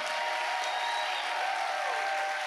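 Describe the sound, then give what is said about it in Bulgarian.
An audience claps steadily during a sermon, as the preacher asks those who believe the message to clap, a dense crackling wash of many hands at an even, fairly loud level throughout, with no voices standing out. “О, хайде ръкопляскай, ако вярваш това, което проповядвам днес.”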